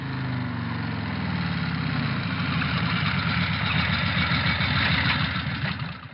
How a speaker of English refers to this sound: It came by motorbike. How fantastic! I wonder if the Poetry Postal Service uses the same sort of motorbike as Queenie rides.